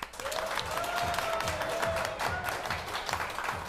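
A live audience applauds steadily to welcome a guest for an interview, dense clapping filling the whole clip at an even level, with a faint sustained tone humming beneath early on.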